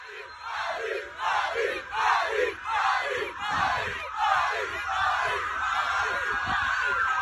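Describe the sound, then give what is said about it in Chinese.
A large crowd of Real Madrid football fans chants 'Madrid' or 'Mbappé' in unison in a stadium, loud rhythmic bursts of voices repeating every half second or so, with a steady roar of the crowd underneath. “咱们来听一段吧，这是我在现场录的，您听一听皇马球迷他们喊的是马德里还是马姆巴佩？”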